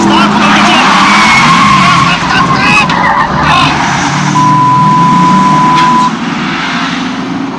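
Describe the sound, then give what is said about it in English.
A car skids loudly to a halt, tires squealing over a rumbling engine, with a sustained high screech near the end as the vehicle grinds to a stop. “Slow down. You can't go through that gate”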